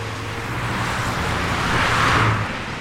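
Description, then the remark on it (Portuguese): Steady road traffic rumbles as cars drive along a busy boulevard, with one vehicle swelling louder as it passes before the roar settles back to a constant wash. “Com efeito, dentre os inúmeros carros que sulcavam o leito dos bolevares, a maioria avançava sem cavalos.”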